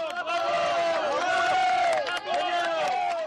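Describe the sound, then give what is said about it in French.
A crowd of residents booing and jeering as the Prime Minister quickly leaves after handshakes and a school visit in a town hit by a night of unrest; many voices overlap into a loud, continuous wall of sound with rising and falling vocal tones. “Quelques poignées de main, une visite dans l'école, puis elle repart très vite sous les huées, sans s'approcher des habitants, dépités.”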